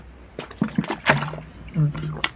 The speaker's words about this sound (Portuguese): Ah, uma pausa aqui pra tomar uma água, por favor.